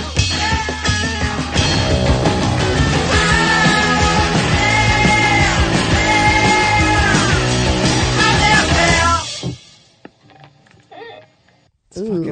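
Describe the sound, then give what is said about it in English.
A loud, dense punk rock track with shouted, yelling vocals over driving guitars and drums plays for about nine seconds, then cuts off abruptly into near silence with faint sounds. “That sounds like every punk band, but excellent, excellent.”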